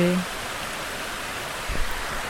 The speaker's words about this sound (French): Oh, je suis tellement contente avec le bruit de la rivière, la fluidité